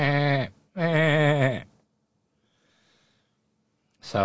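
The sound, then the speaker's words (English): A person mimics a baby goat's bleat, giving two wavering, quavering cries separated by a short gap, then a pause of near silence before a third cry begins. “All I heard, it, it, it was all quiet, and in a little bit I thought I heard a baby goat.”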